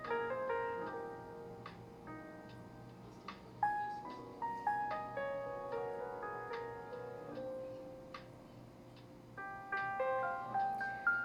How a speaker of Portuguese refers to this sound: Tente perceber o máximo de instrumentos nessa música que eu coloquei.